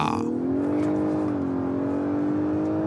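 The engine of a Lexus LS 500h car, President Line, accelerating, its droning hum rising slightly in pitch and then holding steady and loud for the whole few seconds, with no voices over it.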